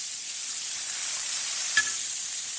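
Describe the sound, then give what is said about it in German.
Steady, hissing sizzle of food frying in ordinary vegetable oil in a very hot, huge pot, continuous and fairly loud, with one brief scrape or clack of stirring with a long-handled cooking spoon partway through. No voices. “Der Topf war ziemlich heiß. Jetzt muss ich eben aufpassen, dass hier nichts anbrennt. Und deswegen muss ich sofort ziemlich viel rühren.”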